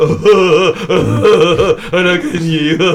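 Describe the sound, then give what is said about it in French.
A voice imitates jerky, gasping breaths like a laugh, a rapid string of loud vocal huffs and pants with no words, continuing without pause. “ne produit strictement aucun effet thérapeutique, je le confirme, plutôt une douleur passagère, mais néanmoins assez violente, et ne provoque qu'une réaction liée à une respiration saccadée apparentée à un rire tel que.”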